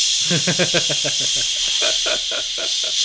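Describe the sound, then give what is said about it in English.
A voice imitates a bidet's continuous spray of water with a steady, hissy 'shhh' held for about three seconds, its breathy hiss pulsing slightly with vocal rhythm. “Like maybe I need a couple more sprays here.”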